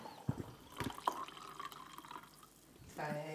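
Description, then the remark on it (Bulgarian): Wine pours into a glass in a house, with a few soft drips and a thin, steady trickle; a voice starts up briefly at the very end. “хвърли микрофона и отиде и ми наля вино, което е супер е, мило.”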